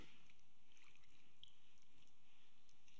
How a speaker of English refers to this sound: all you're doing is washing your hands. Exactly. I'm allowing the water to do its work. I'm allowing the soap to do its work.